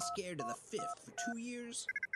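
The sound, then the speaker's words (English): Sci-fi spaceport sound effects from Bruce: a busy ambience with a quick flurry of electronic beeps, paired tones and chirpy synthetic warbles, ending in a short run of rapid blips, moderately loud. “Got some fun little spaceport noises here from Bruce.”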